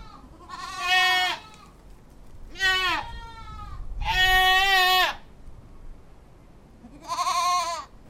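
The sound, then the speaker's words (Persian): A goat and her kids, roaming about, bleat four times, each call a wavering, quivering cry with short pauses between, fairly loud against a quiet outdoor background. “سگی در آستانه در لمیده بود و بزی با بچه هایش در اطراف پرسه میزد”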